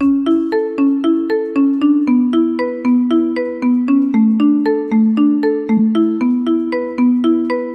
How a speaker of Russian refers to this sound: А вот этот рингтон